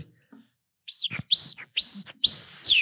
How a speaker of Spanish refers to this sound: Ese es el grito de un bebé pajarito, ¿no?